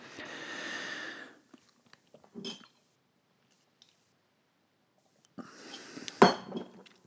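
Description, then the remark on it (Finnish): Someone takes a small sip of a drink: a soft breathy slurp, a pause, then rustling and a sharp clink as a cup or glass is set down. No one speaks. “pieni hörppy, hörppy vielä tähän loppusuoralle”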